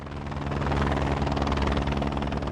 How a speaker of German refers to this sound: Anflug auf den pyramidenförmigen Gipfel des Hochvogel in den Allgäuer Alpen. Der Pilot setzt den Helikopter mit nur einer Kufe auf einer Felskante knapp unterhalb des Gipfels auf, im zerklüfteten Gelände und hält ihn in der Schwebe.